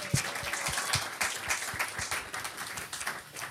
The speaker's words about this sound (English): A round of applause for Brendan.